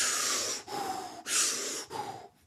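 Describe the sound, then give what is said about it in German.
Forceful, rhythmic Wim Hof breathing: two rounds of deep, hissing inhales each followed by a rushing exhale, strong and evenly paced, with no talking. “viele Leute, die mit einer Atemroutine anfangen, fangen, fangen an mit dem Wim Hof Atmen und sagen, okay, ich mache jetzt jeden Morgen drei, vier Runden Wim Hof Atmung.”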